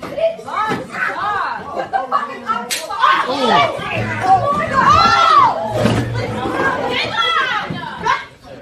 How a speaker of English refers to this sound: She was straight up punching this dude in the face. And nobody did nothing. No, everybody just stood there.